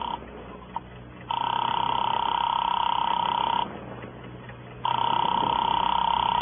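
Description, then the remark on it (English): A telephone rings through the line with a steady electronic tone, two long rings separated by a short pause, loud, after a brief quiet moment with a faint click. “Give me that phone.”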